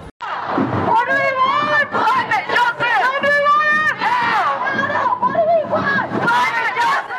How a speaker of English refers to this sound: You're listening to the School Strike for Climate rally in March from Belmore Park to Tanya Plibersek's office in Sydney yesterday.